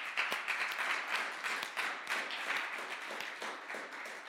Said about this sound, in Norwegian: han sitter der. Gi han en applaus. Han er så kul.